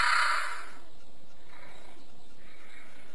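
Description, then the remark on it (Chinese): A leopard cat calls with a harsh, raspy snarl: one loud, breathy burst, then two fainter rasping repeats, with no voices present. “哈，这是石虎的叫声啊！”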